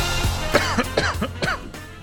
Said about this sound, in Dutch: is een beetje aan het kuchen.